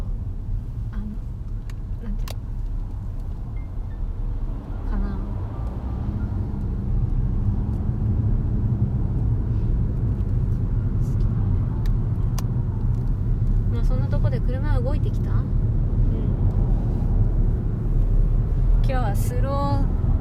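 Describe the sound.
Steady low rumble of a car interior as it drives slowly in a traffic jam, engine and road noise droning throughout, with people talking quietly over it and a few faint clicks and ticks.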